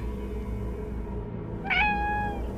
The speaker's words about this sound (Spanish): Sus maullidos sonaban amortiguados por culpa de una playera.